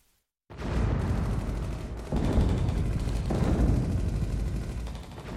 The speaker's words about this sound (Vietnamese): Một ngày nọ, tiếng súng lại nổ rền từ miền Nam xa xôi.